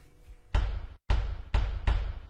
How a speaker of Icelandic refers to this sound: En það fyrsta sem ég gerði til þess að gera þetta lag var að koma bassatrómið í gang. Til þess að gera bassatrómina notaði ég hljóðið úr hörðinni á ískapnum